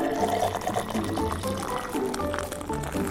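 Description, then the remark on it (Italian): Pepsi pours steadily into a glass of milk, a continuous bubbling, gurgling flow with rising fizz and foam, fairly loud, lasting a few seconds with no talking. “Ok, diciamo che mi sento pronto per versare la Pepsi. Lo sto facendo sul serio, eh?”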